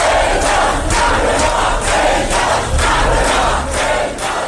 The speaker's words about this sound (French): Oui, elle a atterri ce matin à l'aéroport de Téhéran acclamé par une foule venue l'attendre.